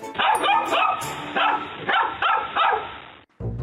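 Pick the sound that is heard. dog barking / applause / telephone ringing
dog barking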